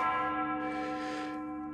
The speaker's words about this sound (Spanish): La campana de Santa Julia llama a misa.